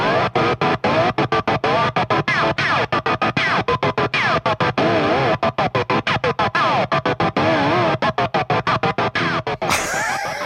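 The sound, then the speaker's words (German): An effects-laden guitar played with a glass bottleneck slide worn on the finger, its pitch wavering and gliding while a rapid, irregular stutter chops the dense, distorted tone into pieces. Loud, with no talking. “wenn man das mit dem Bottleneck spielt, sprich mit so einem Glashals auf dem Finger, dann hat das nochmal einen ganz anderen Sound.”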